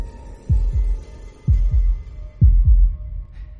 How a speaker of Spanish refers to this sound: Pero durante varios minutos el corazón siguió latiendo con un sonido ahogado. Claro que no me preocupaba, pues nadie podría escucharlo a través de las paredes.